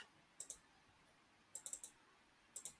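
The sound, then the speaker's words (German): Crisp computer mouse clicks arrive in three short bursts: a quick double click, then a rapid run of four, then another double, with quiet room tone between. “Warte, ich klicke drauf.”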